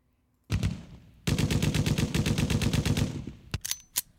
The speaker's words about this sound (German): oh Gott, die, die, Schießgeräusche, die Schießgeräusche, Digga.